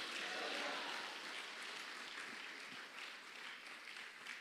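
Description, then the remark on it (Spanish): A church audience applauds for the Lord during a sermon, a steady, dense wash of clapping that holds for several seconds, moderately quiet, with no clear voices standing out. “Déselo fuerte al Señor, pues.”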